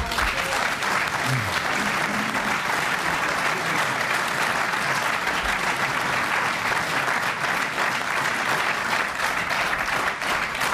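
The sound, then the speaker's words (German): Sustained applause from the studio audience of an SR broadcast show, a dense, steady wash of many hands clapping at an even loudness for about ten seconds, with faint voices briefly audible beneath it early on. “Klatschen Sie nicht so lange, meine Damen und Herren, sonst wird die Sendung zu kurz.”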